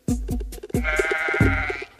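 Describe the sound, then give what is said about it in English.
Sheep bleat loudly, several wavering, quavering calls in quick succession, each starting with a sharp thump, over a steady tonal backdrop like part of a song. “Do androids dream of electric sheep?”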